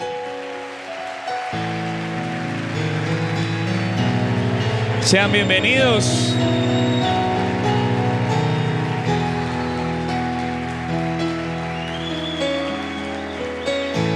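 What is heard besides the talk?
loud applause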